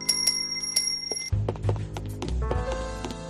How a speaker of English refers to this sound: Then I heard the front office door open.